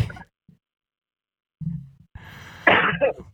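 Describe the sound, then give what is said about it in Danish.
A few harsh coughs in separate bursts, the last cluster louder and raspier, with short silent gaps between them and no talking. “Jeg hoster.”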